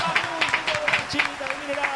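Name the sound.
applause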